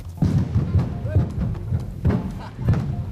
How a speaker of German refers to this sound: Was tönt wie ein kleines Feuerwerk, ist eigentlich die erste Sprengung für den Sondierstollen bei Brienz. Gewesen.